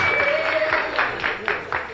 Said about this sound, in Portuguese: Cadê as palmas, cara?